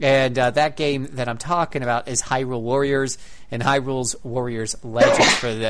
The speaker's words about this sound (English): Bless you.